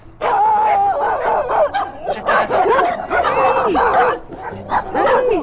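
Several dogs bark and yip over one another in a loud, continuous chorus, with high-pitched whining and yelping mixed into the sharp barks throughout.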